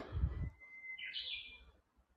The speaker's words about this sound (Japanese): 朝6時ぐらいからウグイスがめちゃくちゃ泣いているの。